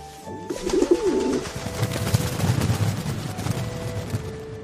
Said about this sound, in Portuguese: O olho do, dos pombos assim brilha, cada um pega um pedaço da coxinha, faz uma reverência com a cabeça e vai embora voando.